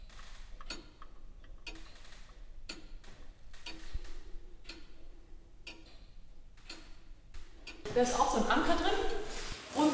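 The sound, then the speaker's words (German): A floor-standing grandfather clock from 1775 ticks steadily as it is opened, about once per second, each tick sharp and clear, its entry and exit pallets giving slightly different tick and tack sounds; near the end a voice starts talking over it. “Durch die Türe begeben wir uns ins 18. Jahrhundert, wo Tabea Rude eine Bodenstanduhr von 1775 öffnet.”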